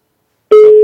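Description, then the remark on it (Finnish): After a brief silence, a telephone ringback tone begins abruptly on an outgoing call placed from a studio phone: a steady, single-pitched electronic hum, fairly loud and clear, heard from the caller's side with no one talking. “Kato, nyt se soi, nyt se soi.”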